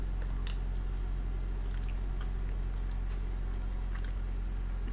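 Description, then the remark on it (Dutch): A person bites and chews a boiled egg: soft chewing with occasional wet squishy bites, a few sharp clicks scattered over a steady low hum, and no one talking. “Ik ga nu een hapje eten. Ik heb er echt zin in.”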